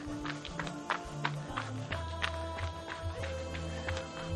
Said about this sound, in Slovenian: Čez zdravni korakci in gremo, tečemo, tak, tak, tak, tak. Nikamor ne hitimo naprej.